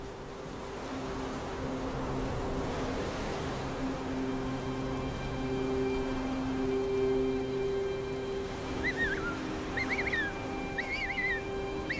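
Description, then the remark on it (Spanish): Against steady wind-like noise and a low humming drone, a penguin chick, left alone on an island while its parents are away at sea finding food, lets out several high, wavering crying calls in short bursts near the end, fairly faint and unanswered, as night begins. “Los llantos de paloma no obtienen respuesta mientras comienza la primera noche y la más solitaria.”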